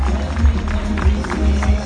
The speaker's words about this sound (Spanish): Felicitaciones, un aplauso fuerte para ustedes, por favor.